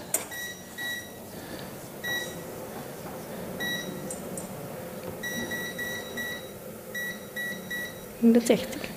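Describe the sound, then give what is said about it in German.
Short electronic beeps from a modern electric oven's control panel chirp in quick clusters as it is set to 160 degrees for baking strudel, over a low room hum with faint background voices and a brief clatter near the end. “das ist deine Maschine, die ist modern. Kannst du mir das einmal hochschalten ja, auf 160 Grad, wie du gesagt hast?”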